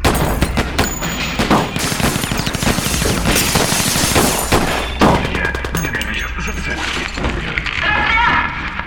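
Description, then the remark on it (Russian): A loud volley of gunfire following an order to fire, rapid bursts of shots crackling one after another with shattering, breaking sounds mixed in, and voices shouting faintly underneath throughout. “Хватит, убить их! Огонь!”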